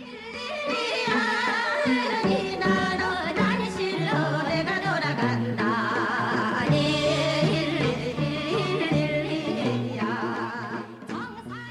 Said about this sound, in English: And this song samples a traditional Korean folk song of the same name that sounds like this.